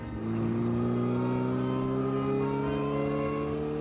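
A car engine revs up and accelerates steadily, its pitch climbing smoothly over a few seconds, loud with no voices.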